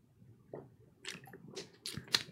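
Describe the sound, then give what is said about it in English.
A person drinking water, with a few short, wet gulping and swallowing sounds spaced irregularly over a couple of seconds, fairly quiet and with no talking. “I was drinking water.”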